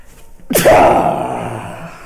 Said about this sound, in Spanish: Ah, a ver, aguántenme, deje estornudo.